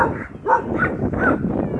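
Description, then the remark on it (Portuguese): A dog barks three times in quick succession, short and fairly clear, set against a faint steady background noise with no talking. “O cachorro.”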